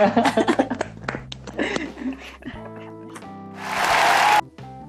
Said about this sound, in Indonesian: Tepuk tangan dong